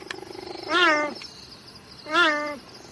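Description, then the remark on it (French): Two loud meows from the cheetahs Lucas and Rocco calling each other, each a half-second call that slides downward in pitch, separated by a short pause, with no one talking over them. “Oh, c'est trop mignon, Lucas et Rocco miaulent pour s'appeler.”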